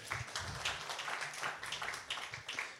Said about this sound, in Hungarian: Egy tapsot szerintem egészen nyugodtan.